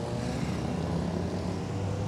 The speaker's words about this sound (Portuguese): e vão sair daqui com o apoio do helicóptero Águia da Polícia Militar.